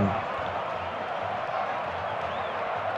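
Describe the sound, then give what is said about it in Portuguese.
A huge stadium crowd of Grêmio football supporters roars steadily during a match, thousands of voices blending into a dense, continuous wash of chanting and cheering that stays at an even loudness throughout. “Tá cantando demais a torcida do Grêmio”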